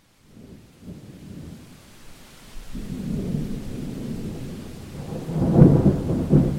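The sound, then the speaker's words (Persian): Heavy rain pours steadily in Ireland in 1846 while deep thunder rumbles and builds, swelling into a loud roll near the end. No voices are present. “در سال 1846 باران بسیاری میبارید حتی بیشتر از حد معمول ایرلند”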